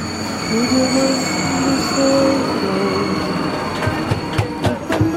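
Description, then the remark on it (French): A metro train in Santiago rumbles along its rails with a steady low roar, high tonal whines rising and falling, and sharp clacks of wheels over track joints near the end. “ambiance euh, dans le métro euh, de Santiago aujourd'hui.”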